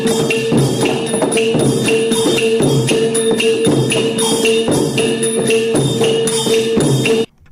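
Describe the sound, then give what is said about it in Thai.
Lively Thai long drum ensemble music of five instruments: long drums, gong, ching and chap cymbals and krap clappers. Steady pounding drum beats with ringing gong tones and bright, repeated cymbal clashes, played continuously and loudly in a driving rhythm, with no voices. “และวงกลองยาวนะครับ ก็ประกอบไปด้วยเครื่องดนตรีทั้งหมด 5 ชนิดครับ กลองยาว มง ฉาบชิงแล้วก็กลับ”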